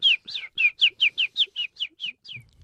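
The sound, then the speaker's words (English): A bird-chirping sound effect: a quick, steady series of about eleven bright, sharp notes, clear with nothing else behind it, the last note trailing off softer. “Are we ready to go into for the birds? Let's get to these birds, honey.”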